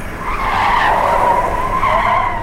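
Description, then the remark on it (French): A car skids loudly as it zigzags, its tires squealing in a sustained, wavering screech that bends in pitch as the vehicle swerves, continuous for a couple of seconds with no voices. “Le véhicule zigzague avant de plonger dans la charrette.”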